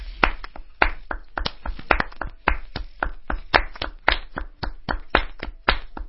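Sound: hand clapping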